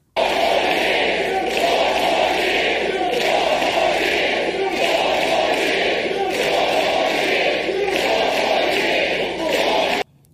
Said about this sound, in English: Yeah, now all these people there now screaming uh, four more years for uh, Beijing Biden, his supporters there.